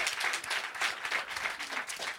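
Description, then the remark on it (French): A stand-up comedy crowd applauds a comedian steadily, many hands clapping in a dense, even wash of sound that holds at a moderate level throughout the short stretch. “Du bruit pour lui, s'il vous plaît.”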